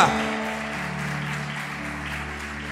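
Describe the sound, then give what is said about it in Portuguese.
An audience applauds the Lord in a steady, dense wash of clapping that holds at an even level throughout, with sustained keyboard-like musical tones humming underneath and no one speaking. “Quem pode aplaudir o Senhor porque Ele está cuidando da sua vida?”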